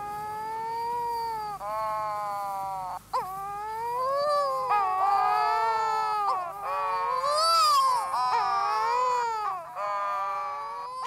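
Courting pairs of wedge-tailed shearwaters, dark gull-sized seabirds, give long, eerie moaning calls, several overlapping wails that rise and fall in pitch like crying babies or yowling cats, continuous and loud with no talking.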